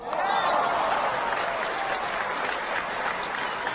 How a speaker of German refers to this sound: Vielen herzlichen Dank für den Applaus.